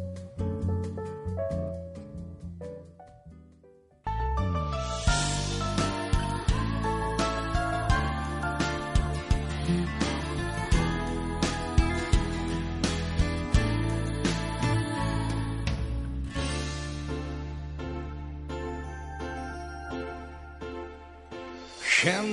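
A pop song's instrumental intro opens softly for a few seconds, then the full band kicks in with a steady driving beat and bright layered melody, playing loud and clear with no singing yet.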